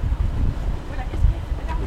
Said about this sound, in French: Ah, pas le vent, on l'a face à nous, là. Ouais, le vent, on l'a face à nous. Bah ouais, on n'a pas de chance.